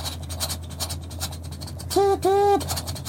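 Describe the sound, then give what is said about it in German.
Someone vocally imitates a train horn: a short hoot followed by a longer one, both loud, over a steady scratchy, rumbling background noise. “Nein, wir sind natürlich leider, ihr habt es äh, gehört an dieser tollen Imitation, ähm, in den zeitreisenden DeLorean”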